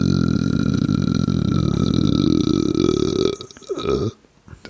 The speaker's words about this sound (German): wenn der Mann eins kann, ne? Dann ist es halt ja. wirklich äußerst, äußerst lasziv ins Mikrofon zu rülpsen. Sehr, sehr angenehm.